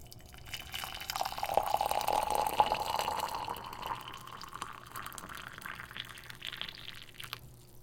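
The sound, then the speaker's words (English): Tea streams steadily into a cup for a few seconds, the gurgling pitch rising as it fills, then trails off into faint drips and quiet clinks. Clear, no voices. “It's tea, actually.”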